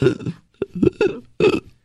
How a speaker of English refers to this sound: Like I hate I hate when I burp. I hate when other people burp. I think it's disgusting.